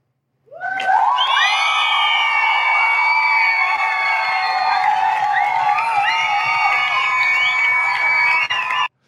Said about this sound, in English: That deserves the group applause right yeah.